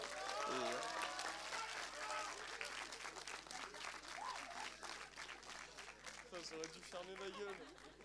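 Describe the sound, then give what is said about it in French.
An audience applauds continuously for a person asked to stand up, a dense wash of clapping that stays fairly loud throughout, with voices calling out and talking over it. “vas-y, lève-toi, on l'applaudit, on l'applaudit, vas-y, lève-toi.”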